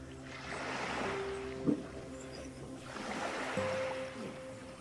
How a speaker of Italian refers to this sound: Ecco che arriva un'altra onda, aspetta, se no finisco in mare.